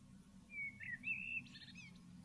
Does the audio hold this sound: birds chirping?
yes